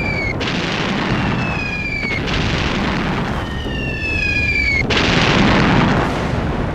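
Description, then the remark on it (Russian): Cannon fire booms from the boats of Cossacks guarding the shores of the Sea of Azov, aimed at an abandoned English steamship: a continuous rumbling roar of repeated blasts, with high descending whistles streaking overhead between the loud, dense bursts; no one speaks. “На них пушки Это казаки, стерегущие берега Азовского моря А зачем они стреляют?”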